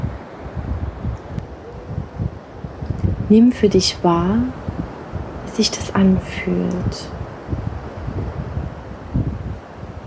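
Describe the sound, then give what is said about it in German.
A steady, breathy wash of ocean waves rushing continuously in the background, soft and broad, while a calm voice speaks quietly for a few seconds in the middle, guiding a meditation for relaxing and falling asleep. “Meditation mit Meeresrauschen zum mentalen Abschalten und Einschlafen”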